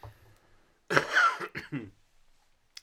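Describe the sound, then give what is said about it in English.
A single loud, raspy cough, breaking into a few harsh bursts over about a second, with quiet stretches before and after and no talking. “It was the cough.”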